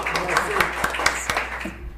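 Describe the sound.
Brief applause: a handful of sharp, evenly spaced claps over about a second and a half, moderately loud, with faint voices murmuring underneath.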